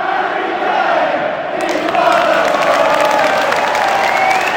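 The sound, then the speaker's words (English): A large football stadium crowd of Spurs fans cheers and roars continuously, a dense, loud wash of voices that swells slightly louder partway through, with scattered whistles and shouts mixed in. “The Spurs fans are happy to see him back.”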